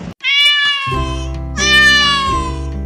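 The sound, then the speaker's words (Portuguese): A female cat, Isabela Junara, meows twice in quick succession in an apartment, loud, each call long and drawn out, with a steady low hum sounding underneath from the middle of the first meow onward. “Em um certo apartamento, a gatinha Isabela Junara dá uma volta pelos cômodos para verificar as condições”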